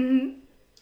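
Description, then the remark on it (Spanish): A single drawn-out meow made by a human voice imitating a cat, fairly loud at first, then trailing off into quiet within a second. “Miau.”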